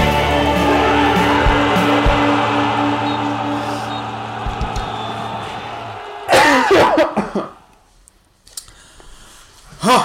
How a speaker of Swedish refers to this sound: Ja, det är väldigt bra i alla fall att du hostar sådär in i eh, armbågsvecket. Ja, man, eh, man ska göra det har man ju fått lära sig här nu.